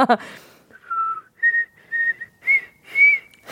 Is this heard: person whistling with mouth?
yes